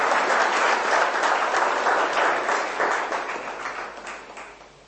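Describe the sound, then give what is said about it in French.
A crowd applauds with dense, steady clapping that stays loud for several seconds, then gradually thins and fades toward the end. “Vous pouvez les applaudir parce que ça n'arrive pas souvent.”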